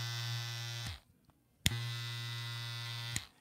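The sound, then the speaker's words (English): Electric clippers buzz with a steady, high-pitched motor hum, cut off for a moment, then click back on and run steadily again before switching off with another click. “It turns on and it's it sounds fast, fresh, right?”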